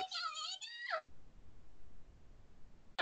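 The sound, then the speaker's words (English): A voice actress voices a high, squealing cartoon-creature cry in a recording-booth outtake, lasting about a second, its pitch wavering and then dropping sharply, followed by quiet background hiss. “Pikachu sound like you're having an orgasm”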